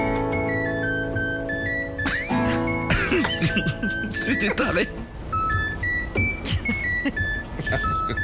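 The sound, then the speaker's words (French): A dishwasher's electronic beeps tap out a familiar TV theme melody, a steady run of short pitched tones, while people talk and laugh over it. “Écoutez le générique de Friends version lave-vaisselle.”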